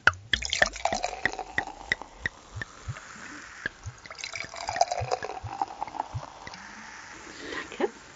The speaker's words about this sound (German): so, gieße mal ein hier.